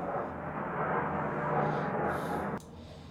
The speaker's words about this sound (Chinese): 嗯，大家听到这个飞机的声音，对吧？这明明显不是民航啊。